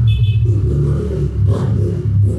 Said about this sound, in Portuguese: A moto passando, gente, desesperador.